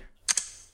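A smartphone's new screen lock sound, with less echo and quicker than the original: two quick, crisp clicks in close succession, bright and sharp like a tiny mechanical latch, with a short fading tail and no talking.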